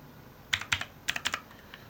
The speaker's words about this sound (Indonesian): maaf ya ada suara keyboard kencang banget pasti ya.